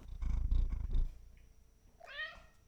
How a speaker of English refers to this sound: we have an excuse now to play an audio clip of our cat purring and meowing.